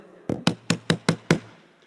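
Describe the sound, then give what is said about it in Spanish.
Six quick, evenly spaced knocks on a pastor's door, fairly loud, with a faint low hum underneath and no voices. “Se mete otro tanganazo y tocan la puerta.”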